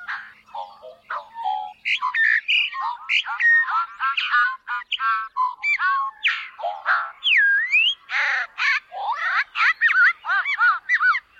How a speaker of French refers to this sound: Les messieurs sont de couleur noire, avec un dessus de tête de couleur jaune et un dos blanc. Les dames sont de couleur brun clair, avec des bandes noires écoutons le chant du goglu commun.